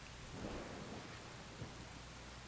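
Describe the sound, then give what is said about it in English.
Steady rain hisses throughout while low thunder rumbles and rolls in the background, with a brief louder crack partway through. No voices, just the continuous storm. “also lightning is still happening and presumably making more.”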